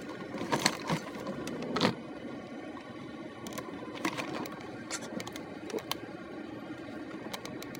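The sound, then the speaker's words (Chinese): Wind buffets over a steady roar of chaotic city street traffic in Zhengzhou, heard while driving, broken by scattered clicks and short, sharp bursts of noise; no one speaks. “让大家听听郑州的风，听听郑州混乱交通。”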